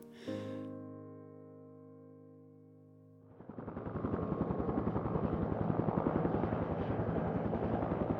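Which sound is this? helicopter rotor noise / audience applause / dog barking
helicopter rotor noise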